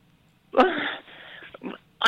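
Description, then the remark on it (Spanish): Someone coughs in harsh, raspy bursts: a loud explosive cough trailing into a wheezy rasp, then a few shorter, weaker hacks, and a final sharp cough. “Está tosiendo.”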